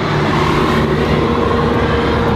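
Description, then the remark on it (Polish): A bus rumbles past, a loud, steady low roar with a broad engine hum that fills the whole stretch without letting up. No one speaks over it. “bo autobus”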